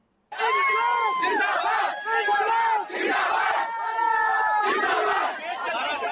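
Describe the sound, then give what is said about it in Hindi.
A crowd of thousands of students protesting with the Indian tricolour outside the Madhya Pradesh State Service Commission shouts together in loud, sustained bursts, voices rising and falling in chant-like waves with brief dips between shouts. “मध्य प्रदेश राज्य सेवा आयोग के बाहर हजारों छात्रों ने तिरंगा लेकर प्रदर्शन किया”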